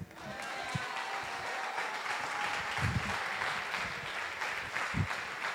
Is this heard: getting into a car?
no